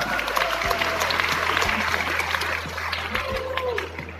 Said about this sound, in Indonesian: Tepuk tangan untuk kita semua.